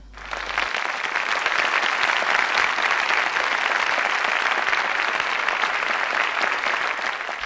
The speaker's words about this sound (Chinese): 然后呢，都讲到这里了，不，能不能给点掌声啊？